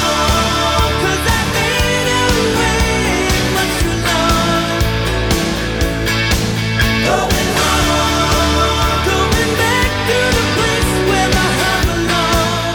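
A rock song from a 1998 compilation album of unreleased material plays loud and steady throughout, with a dense full-band sound, driving drum hits and sustained harmonic instruments, and no one talking over it.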